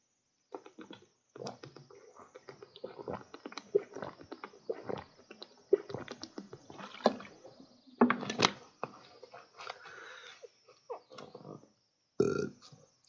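Someone drinks water, with a run of wet gulps and swallows in an uneven rhythm, followed by a short pause and one last loud gulp.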